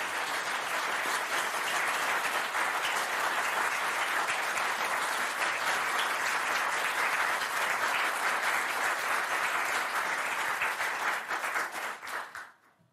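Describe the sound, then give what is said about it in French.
Sustained applause from a large audience, dense and steady clapping at full volume for about twelve seconds before quickly fading out at the end. “On m'applaudit, nous.”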